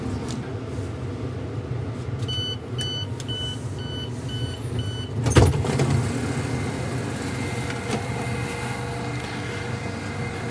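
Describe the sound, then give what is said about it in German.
A train rumbles steadily as it slows down just before arriving at its stop, with a run of evenly spaced high electronic beeps partway through, followed by a single sharp clunk. No one speaks. “Jetzt wird der Zug langsamer.”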